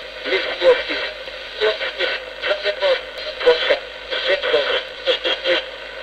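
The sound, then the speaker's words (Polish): Radio noise during an EVP transcommunication session, slowed down, crackles and sweeps continuously, with bursts of garbled, speech-like fragments rising and falling in choppy pulses through a band-limited hiss, fairly loud throughout. “Przez radio, tak?”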